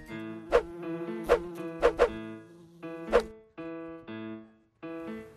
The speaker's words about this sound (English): These mosquitoes are really getting to me.